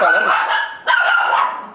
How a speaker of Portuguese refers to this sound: Esse é o problema de fazer em casa, né? Os cachorros ali, o caminhão do lixo ele vai passando e os cachorros começam a latir, né?